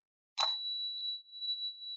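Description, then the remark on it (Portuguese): A single bright bell ding: a sharp metallic strike followed by a clear, high ringing tone that sustains for well over a second. It sounds fairly soft and stands alone with no talking. “foi um sino?”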